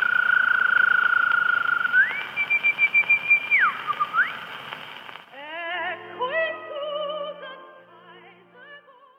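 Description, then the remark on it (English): A woman whistles the refrain of Zeller's Nightingale song on a scratchy old recording: long held notes and pitch leaps, then rapid warbling trills and twittering phrases over faint accompaniment, imitating a nightingale. “I utilised this gift of mimicry and made her record Zeller's Vietnamese Nightingale song, in which she whistles the refrain.”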